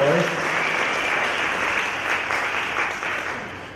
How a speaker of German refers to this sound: Jetzt nochmal einen fetten Applaus für Jesus und für unsere Musiker.